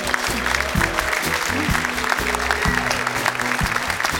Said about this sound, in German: Deshalb jetzt außerplanmäßig schon mal ein großer Applaus für meine Kollegin